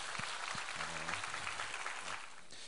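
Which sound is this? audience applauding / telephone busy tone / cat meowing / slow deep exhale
audience applauding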